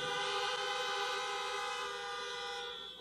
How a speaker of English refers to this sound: Yeah. I'm telling you, if y'all honk those horns very much, we may stay here all day.